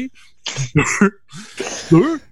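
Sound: cough into elbow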